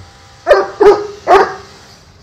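A dog barks three times in quick succession, loud, each bark short and sharp, with a low steady background hum and no one talking. The dog is beside a swimming pool, barking for a ball in the water.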